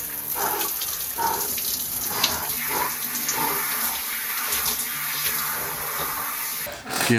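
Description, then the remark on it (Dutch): A cold shower runs steadily, a dense, continuous hiss of spraying water with faint splashes and shifts, fading briefly near the end. “van over koude douches.”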